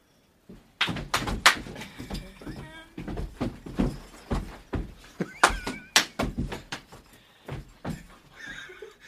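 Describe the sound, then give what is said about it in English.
Two people dance on a floor, one crumping and one stomping, heavy feet landing in a quick, uneven rhythm of loud thuds, with excited voices and laughter rising in between. “Just crump, stomp, crump, stomp.”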